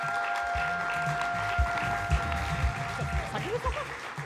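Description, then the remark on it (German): Sustained audience applause at a church gathering for a church worker, a dense steady wash of clapping over four seconds, with bits of voices and a faint steady tone running underneath. “Hey, lass uns mal einen Applaus geben.”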